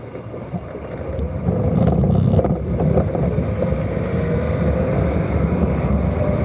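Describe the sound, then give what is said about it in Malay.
Steady rain falls with a constant, dense rushing noise heavy in the low end, swelling slightly after the first second and holding unbroken to the end, with no voices. “Sekejap eh apapun keadaan hujan Adi tetap teruskan perjuangan Adi”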